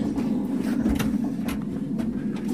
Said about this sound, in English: So, yes, you can hear it's creaking, and this is an old elevator shaft. It looks like that we are in a an old gold mine, silver mine, perhaps.